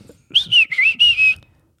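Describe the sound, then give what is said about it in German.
Five quick, high-pitched electronic beeps of an alarm clock tone in a row, each with a slight warble in pitch, heard as Grogu moves toward Luke, clearly on their own with no talking. “Und dann geht Grogu quasi Richtung, Richtung Luke und dann hört man es äh, piepen.”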